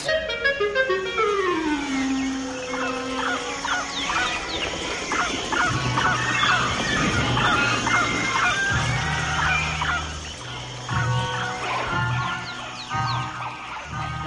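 A hen and her chicks squawk and cluck frantically in a loud commotion as a cat pounces on them after the basket covering them is lifted, with overlapping shrill cries and chirps that continue unbroken for the whole stretch, with no talking.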